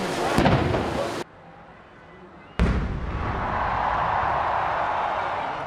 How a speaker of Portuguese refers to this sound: A cada hora, salvas de tiros de artilharia eram disparadas do forte de Copacabana.